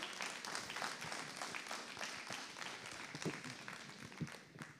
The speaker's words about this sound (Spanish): Denle aplauso a Cristo, pues, si lo cree.